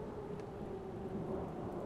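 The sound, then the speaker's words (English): A thunderstorm rumbles steadily, deep continuous roaring wind and thunder with a hiss of rain, filling the short stretch at an even, full level with no voices. “Suffice to say, as I entered the thundering winds coming across the plains of death,”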